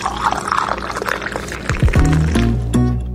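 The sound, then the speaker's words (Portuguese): Water pours into a glass, a splashy gurgle at first, then a steady stream whose pitch climbs as the glass fills. No voices, just the liquid. “Gente, bora tomar uma aguinha rapidinho e voltamos já já.”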